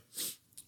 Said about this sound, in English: I got to sneeze. Bless you.